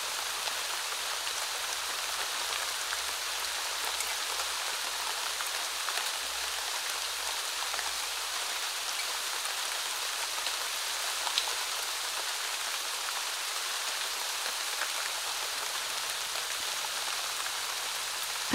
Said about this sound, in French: Là, debout, sous la pluie.